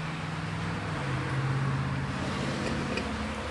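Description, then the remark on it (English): Steady road traffic, busier than usual, with a low engine hum and broad rushing wash, holding at an even, moderate level throughout with no distinct single pass-by and no talking. “I was gonna say it's a little busier than usual out here.”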